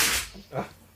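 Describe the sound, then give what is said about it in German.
A single sneeze: a sudden, loud burst of hissing breath, then a briefer, softer, lower-pitched sound trailing off. No one speaks. “Gesundheit, der einer der vielen zahlreichen Podcast-Tunen hat hier gerade genießt.”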